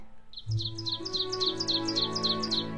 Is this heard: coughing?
no